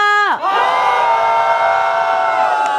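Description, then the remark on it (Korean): A crowd of fans, the K-pop fandom 'Miracle', erupts into loud, sustained cheering and high-pitched screaming when asked to shout, following a brief tonal sound at the start, with the roar holding steady throughout. “어 미라클 소리 질러.”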